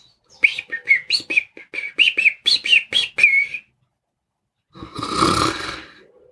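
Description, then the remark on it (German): A small European robin sings a quick run of high, bright warbling notes for about three seconds, clear. After a short pause comes a louder, rough, breathy noise like a snort. “Und zum Schluss kam das kleine Rotkehlchen aus meinem Garten und hat mir ein Lied vorgezwitschert.”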